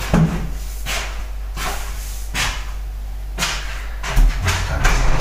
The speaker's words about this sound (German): Gut, jetzt habt ihr also ein bisschen Badezimmeratmosphäre.